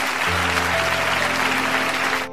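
An audience applauds to thank a teacher for her talk, a dense, even wash of clapping that holds at a loud level for about two seconds before cutting off, with a low steady hum running beneath.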